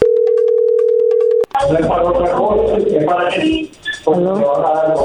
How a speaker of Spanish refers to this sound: No haga ruido, ahí se está marcando.